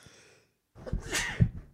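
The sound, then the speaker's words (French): A soft, breathy intake is followed by a short pause and then a sharp, explosive sneeze burst, moderately loud, with no talking. “à tes souhaits. Fois deux.”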